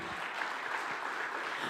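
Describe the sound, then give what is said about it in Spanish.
An audience at a church sermon claps steadily for the Lord in dense, sustained applause, a broad crackling wash of many hands with no clear pauses and no voices standing out. “Vamos, denle un aplauso fuerte al Señor.”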